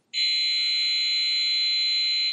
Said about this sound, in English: I forgot to turn the ringer down this morning. It is a ringer, by the way. If you think when it goes off, if you think it's the uh, fire alarm, you know, just don't run out, is all I'm saying